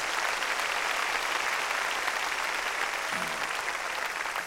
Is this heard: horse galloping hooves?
no